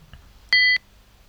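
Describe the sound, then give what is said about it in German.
A single short electronic notification beep signalling that a file has finished downloading, a steady two-tone chime lasting about a quarter second, clear against near silence. “Da war gerade noch eine Datei. Der Ton war irgendwie ein bisschen weg.”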